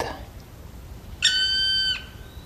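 black woodpecker call

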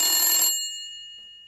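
telephone ringing

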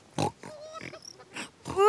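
pig grunting and snorting

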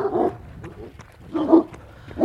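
dogs barking aggressively

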